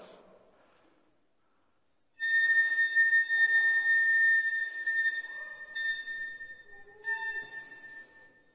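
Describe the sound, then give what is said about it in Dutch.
After a couple of seconds of near silence, a flute sounds one high note, the single tone of a very simple song, and holds it steadily for several seconds, clear and fairly loud, with no voices. “En hij begint te spelen met zijn ene toon.”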